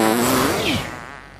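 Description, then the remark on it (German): A cartoonish fart sound effect: a loud, buzzy, tonal blast that slides downward in pitch for about a second before trailing off, heard on its own with no talking, as the characters Hummelpups and the mini mini bot fart off together. “Also klammerte sich der mini mini bot an Hummelpups fest und beide pupsten los, um zu spionieren, was das für ein komischer Turm war.”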